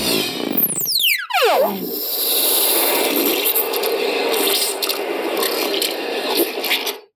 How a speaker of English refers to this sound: and like these slithering tentacles, you know, with making sucking sounds. And I'm like, they've mentioned the word sounds? Okay, that's great. So, of course, I had to make it's called Dark Matter Sphere in the app.